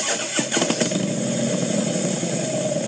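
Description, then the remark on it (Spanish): A motorcycle engine cranks with a few quick sputters, catches, and settles into a steady, loud idle rumble, with no voices, in an advertisement for Piensa Moto, a motorcycle delivery service. “Piensa Moto, servicio de delivery rápido, programado y seguro.”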